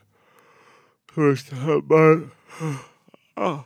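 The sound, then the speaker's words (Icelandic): A person yawns, with a drawn-out breathy inhale followed by stretched, yawning speech, the voice sounding loose and drowsy. “þetta tendensjáður að geispa alltaf mm.”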